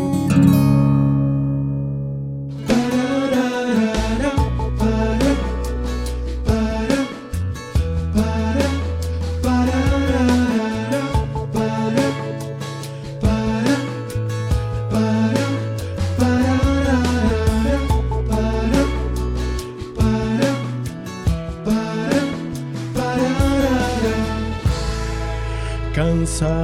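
A song with layered singing voices over steady instrumental backing, full and continuous at a strong level after a brief quieter opening of a few seconds.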